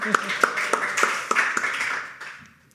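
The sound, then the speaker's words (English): Audience applause at an awards ceremony, a dense wash of clapping with several sharper claps popping out at a steady pace, then tapering off and fading out near the end. “So let's give yourself an applause.”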